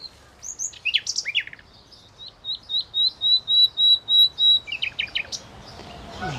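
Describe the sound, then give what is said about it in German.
Recorded nightingale song played from a mobile phone app: opening chirps, then a series of about nine loud, evenly spaced whistled notes, ending in quick trills, with no voices present. “Jetzt spielt sie Nachtigallgezwitscher aus der Handy-App Naturblick ab, in der Hoffnung, dass die echten Nachtigallen darauf mit Gesang reagieren.”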